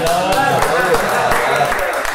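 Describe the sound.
A crowd applause sound effect: dense, steady clapping with sharp hand-claps, mixed with cheering and shouting voices, staying loud for about two seconds.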